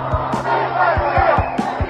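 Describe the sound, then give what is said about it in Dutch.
A large crowd of demonstrators at a protest of some 50,000 people in Brussels against coronavirus policy shouts and chants in a dense, continuous roar, with sharp low thumps, like drumbeats or bangs, punching through at irregular intervals. “50.000 mensen zakten vorige zondag af naar Brussel voor een betoging tegen het coronabeleid.”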